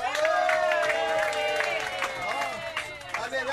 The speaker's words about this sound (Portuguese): Aplausos aí, pessoal.